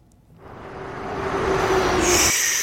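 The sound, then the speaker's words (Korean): A car moving, its engine rumble swelling steadily louder as it approaches, with a sustained humming tone and a sharp high whine entering toward the end. No one speaks. “자동차 움직이는 소리예요.”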